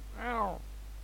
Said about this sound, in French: Le chat, c'est le chat. Eh le chat.